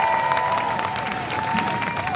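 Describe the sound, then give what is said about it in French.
A crowd applauds about 150 people who have just arrived from Orléans to join them. Dense overlapping claps form a loud continuous wash of sound with no pauses, and a few faint tonal whistles or voices thread through the clapping. “Pendant que nos camarades sortaient de l'agence de l'eau, il y a plein de gens qui nous ont rejoints de Orléans, qui viennent d'arriver, donc je vous demande de les applaudir.”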